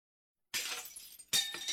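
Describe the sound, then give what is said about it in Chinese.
A jade-green folding screen is pushed over by a woman and hits the floor: a sudden loud crash as it shatters into pieces, with a bright spray of fragments, followed by a second sharp burst of breakage and scattered clinking debris falling onto white silk brocade. “翠绿色的屏风一下子被推翻在地，在接触到地面的剧烈撞击以后，立刻摔成了碎片，散落在雪白的锦缎上面。”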